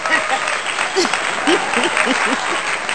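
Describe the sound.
A small group claps steadily for a few seconds, a dense crackling patter of hands, while voices murmur and call out underneath.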